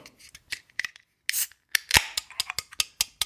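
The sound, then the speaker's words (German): A can of Stigbergets Trouble Sleep imperial stout beer being opened: a series of sharp metallic clicks and scrapes, a short hiss, then a crisp crack as the tab gives way, followed by more light clicking. No one speaks. “Äh, es folgt das Geröff von Stieg Bergets Trouble Sleep Imperial Stout.”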